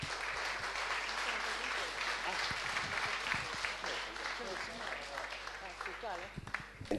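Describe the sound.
An audience applauds steadily for about seven seconds, a dense, even crackle of many hands clapping, with a few voices audible underneath before it begins to thin out at the end.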